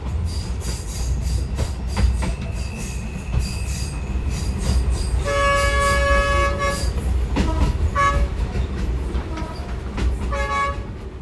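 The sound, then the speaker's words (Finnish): Passenger train wheels squeal on the rails in shrill, sustained metallic tones, coming and going in several bursts over a steady, loud low rumble of the moving train, on the 853-kilometre, 43-hour journey from Dar es Salaam to Mwanza. “Kesti junalla 43 tuntia.”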